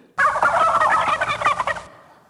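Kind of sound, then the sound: bird, turkey gobbling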